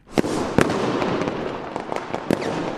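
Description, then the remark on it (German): Fireworks explode on New Year's Eve, banging and crackling in a busy volley, sharp loud reports at irregular intervals over a dense, continuous rumble of further explosions. “Sieht toll aus und klingt auch schön, so ein Feuerwerk soll aber auch dieses Silvester nicht sein, beziehungsweise nur eingeschränkt.”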